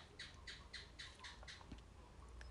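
A gecko chirps in a quick series of about six sharp, evenly spaced clicks that trail off, against a quiet nighttime background hum, with no one speaking.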